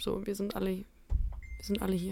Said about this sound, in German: Das ist ein Handy, war das.